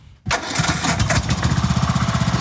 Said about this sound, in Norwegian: Jeg har kjøpt meg en eh, gressklipper som jeg klipper og kjører litt med.